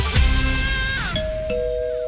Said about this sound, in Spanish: ¿Desde cuánto tenemos timbre en el estudio? ¡Que alguien abra!